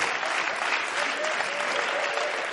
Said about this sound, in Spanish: ¿Qué aplaudís?